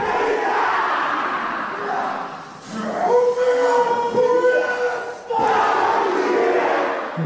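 A large group in New Zealand performs a Maori haka, voices shouting and chanting together in forceful unison with rhythmic body slaps, sustained cries rising over a roaring crowd, then giving way again to loud, dense crowd noise.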